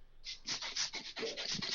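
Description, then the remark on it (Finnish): A Hand Tornado hand pump air blower bottle with a long nozzle, used instead of a can of compressed air, hisses in a quick run of breathy, bright air puffs, pulsing unevenly for over a second with no voices present. “niin mä tilasin tota, tämmöisen, siis Hand Tornado oli niinku aika kuvaava. Tämmöinen siis, tämmöinen pumppupullo, joo, tämmöinen pitkä joo.”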